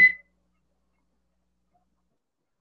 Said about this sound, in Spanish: Suéname, suéname un silbato ahí.